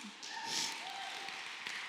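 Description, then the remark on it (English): An audience breaks into steady applause, a dense wash of many hands clapping that holds at an even level for about two seconds, with a faint tonal whoop or cheer mixed in. “You can clap.”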